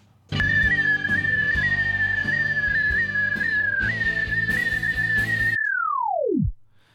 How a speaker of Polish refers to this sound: Continuous. Można zrobić continuous, czyli będzie dźwięk przez cały czas, tylko że ten dźwięk będzie się zmieniał częstotliwość w zależności od poziomu. To znaczy działa to w ten sposób.